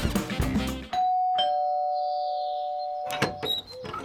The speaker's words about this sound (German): Sie klingeln an der Tür. Sie klingeln an der Tür.